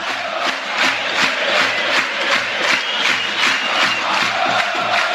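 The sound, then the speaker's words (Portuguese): A large stadium crowd of Londrina football supporters roars and chants loudly and continuously, with rhythmic rising surges every half second or so, thousands cheering in unison. “Eu quero ouvir a massa do Londrina. Eu quero ouvir o torcedor.”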